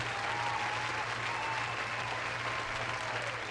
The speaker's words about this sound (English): Round of applause to that. Man, you gotta let the whole round of applause ride, man. Let the whole thing ride.